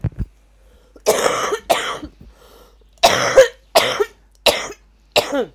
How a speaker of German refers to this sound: Man hört für unser Mikrofon kommt noch das Husten an.